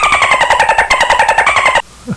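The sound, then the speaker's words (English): A loud old Kia car engine rattles and clatters in rapid, steady pulses with a harsh squealing whine on top, then cuts off abruptly into near silence. “As long as your car doesn't sound like this.”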